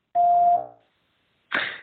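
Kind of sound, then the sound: signal or alarm, answering machine beep tone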